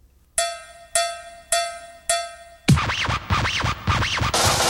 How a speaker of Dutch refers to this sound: Uh, geweldige track met een geweldige tekst, waar ik nu even een klein stukje van, eh, van ga laten horen.